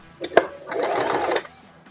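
A cash register drawer opens: a sharp metallic click, then a rattling mechanical slide lasting about a second, fairly loud, with no one talking.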